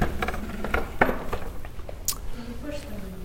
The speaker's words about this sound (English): and I'll move this chair.